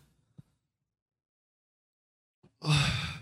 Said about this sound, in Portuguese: Deixa eu beber água.